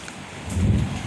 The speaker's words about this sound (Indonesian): Soalnya ini hujan deras juga ya Takutnya suaranya keganggu gitu ya